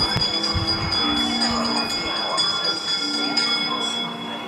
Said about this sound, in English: Wizards and witches, wherever you dwell, give us a hint by ringing a bell.